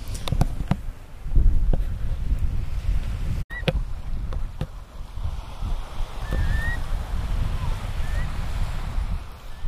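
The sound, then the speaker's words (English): Curlews calling as they fly over Keiss Harbour during a bee walk: a few faint, rising whistled calls over steady, gusty wind and rumbling water noise. “Just some curlews going over”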